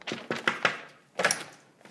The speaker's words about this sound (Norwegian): Oh, døren var låst.